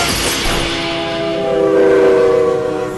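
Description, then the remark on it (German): A train horn sounds a loud, sustained multi-tone blast over rushing, rumbling noise of the 5 o'clock train to Boston passing a gated level crossing, swelling toward the end, with no voices. “das ist bloß ein beschrankter Bahnübergang.”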